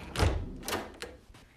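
A door opens with a handful of clunks and rattles: a louder thud at the start, then a few lighter knocks trailing off over about a second and a half. No one speaks.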